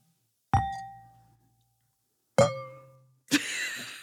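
Three wine glass clinks in a toast, the first two ringing out with a clear bell-like tone that fades over a second, the third brighter and more clattery. No voices.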